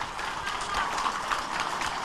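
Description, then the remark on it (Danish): A crowd applauds steadily during a recorded speech in Finnish, a dense crackle of many hands clapping at once, heard at a moderate level with a recorded quality and no voices over it. “Det klapper de af.”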